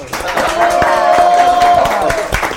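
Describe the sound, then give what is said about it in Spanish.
An audience applauds steadily for a few seconds, dense overlapping claps at an even, loud level, with a long held cheering tone rising above the clapping through the middle. “¡Aplausos!”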